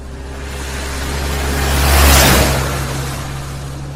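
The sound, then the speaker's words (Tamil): A bus rushes past at speed on a road by a bus stop, its rumbling engine and rushing noise swelling to a loud peak midway before fading off, with steady low engine hum throughout. “அதே பஸ் ஸ்டாப்ல நின்றுக்கு இருக்காங்க ஒரு பத்து பதினஞ்சு நிமிஷமா அப்போ ரோட்ல இவங்கள தாண்டி ஒரு பஸ் வேகமா போச்சு”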